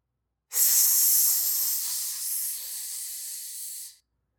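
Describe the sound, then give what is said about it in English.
A sustained, loud hiss starts abruptly, holds steady for about three and a half seconds with a slight drop midway, then cuts off sharply. No voices. “My whole body could feel that the hissing was behind us, and my antennae were already getting a sick, quivering feeling that they smelled something unpleasant.”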